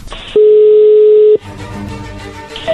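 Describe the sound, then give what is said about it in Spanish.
A telephone line dialing tone as a call is being dialed: one loud, steady, mid-pitched beep holding for about a second, then cutting off into a murky, hissy background. “Le va a llamar el lobo, así que no haga ruido. Ahí se está marcando.”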